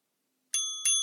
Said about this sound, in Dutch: Dus dat is zo, ja, de intervaltrainer. Ik zet dat daar dan in en dan telt dat voor mij af. En dat geeft zo'n belletje.